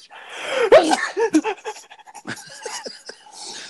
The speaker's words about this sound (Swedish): Prosit! Prosit! No, no. Oh my god. Du låter som han med pengarna i Robin Hood. Va? Ja, ja han, alltså, han lilla räven. Ja. ja just det. När han nyser i sömnen och så här.